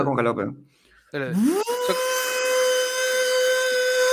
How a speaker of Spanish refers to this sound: Estamos soldando recién la bisagra.